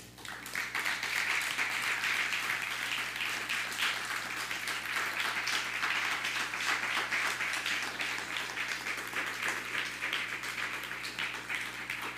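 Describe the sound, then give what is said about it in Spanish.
Steady applause given to the Eternal, a dense wash of many hands clapping that holds at an even, fairly loud level for about twelve seconds without any talking. “Den un fuerte aplauso al Eterno por eso.”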